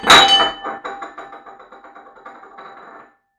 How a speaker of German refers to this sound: Upsi. Sorry. Ähm, warte mal. Oh, jetzt ist mir gerade die Schüssel runtergefallen.